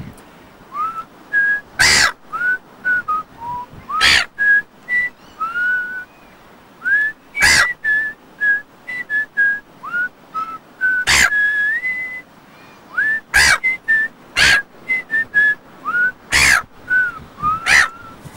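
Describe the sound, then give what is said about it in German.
A person whistles the second verse of a song, a steady, lilting melody of clear, gliding notes throughout, fairly loud, punctuated every few seconds by brief, sharp, noisy bursts. “Ich pfeife und du singst, zweite Strophe.”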